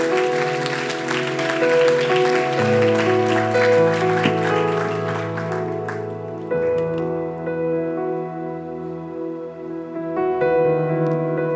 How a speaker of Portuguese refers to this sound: Você pode dar uma salva de palmas para o Senhor? Amém.